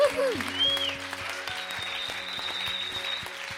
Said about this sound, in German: Hey, lass uns den Leuten einen riesen Applaus geben.